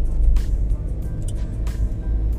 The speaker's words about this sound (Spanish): He salido según lo previsto y me he encontrado que hay un tráfico increíble y para hacer 28 kilómetros en coche